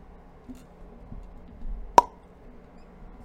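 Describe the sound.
A single crisp, sharp pop made with the mouth, standing alone against a quiet, faintly rumbling background with no talking.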